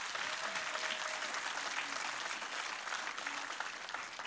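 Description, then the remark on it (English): An audience applauds steadily for a man taking on an interim role: a dense wash of many hands clapping together at an even level throughout, with no one speaking over it. “So just applaud him on his heart.”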